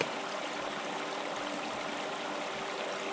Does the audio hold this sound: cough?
no